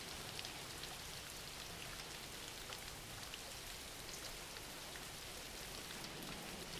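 Steady background rain, a continuous dense hiss of falling drops with faint patters, holding an even level throughout with no voices or other sounds.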